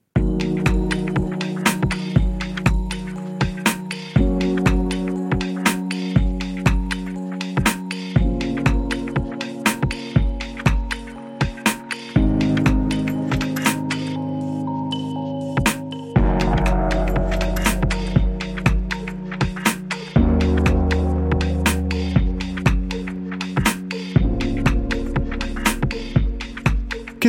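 An electronic music track plays on its own, with a steady, punchy beat over deep sustained bass chords that shift every few seconds, loud and continuous throughout.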